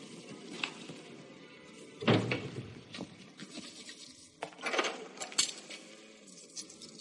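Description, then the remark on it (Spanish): A few scattered metallic clinks and light rattles as old coins are picked up from the top of an old television, with no one speaking. “Luego recoge unas monedas antiguas que tiene sobre un viejo televisor.”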